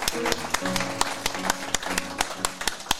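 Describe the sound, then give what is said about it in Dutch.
Audience applause: a run of sharp, irregular claps from a crowd, steady for about three seconds, with a faint sustained tone and murmur beneath. “Ja, jongens en meisjes, een applaus voor”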